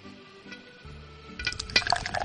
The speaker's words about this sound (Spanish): Y nada, pues ahora solo nos queda esperar mientras abrimos esta botella de chicha, que también está destilada del maíz